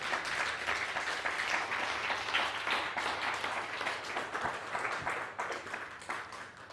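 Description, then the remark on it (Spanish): Loud, sustained audience applause, a dense wash of many hands clapping that holds steady for several seconds without any talking over it. “Denle un fuerte aplauso a la voz mesiánica.”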